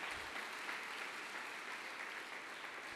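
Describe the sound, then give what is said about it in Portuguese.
An audience applauds Jesus steadily, a dense, even wash of many hands clapping that holds at a constant level for the whole three seconds, with no voices standing out. “Pode aplaudir Jesus.”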